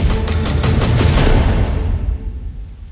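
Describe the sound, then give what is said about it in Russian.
A rapid burst of war gunfire crackles over a heavy, booming rumble of explosions, then the barrage fades into a low, rolling roar that dies away. No one speaks. “Война”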